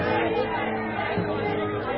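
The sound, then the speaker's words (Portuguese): A dense crowd in the temple area shouting and clamoring at once as they seize Paul, a steady, loud wall of overlapping agitated babble with no single voice standing out, lasting about two seconds. “Então atiçaram a multidão, agarraram Paulo e começaram a gritar:”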